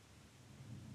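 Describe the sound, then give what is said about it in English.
A low rumble of thunder rolls steadily beneath a hiss of rain in the countryside, swelling slightly toward the end without any voices. “I hope you are enjoying the sounds of the weather as much as I am.”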